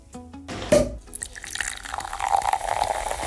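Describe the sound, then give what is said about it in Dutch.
Alcohol-free champagne is poured, a steady splashing stream with fizzing bubbles that builds and rises in pitch as the glass fills, with no voices. “Zo, dat klinkt goed zeg. Alcoholvrije champagne.”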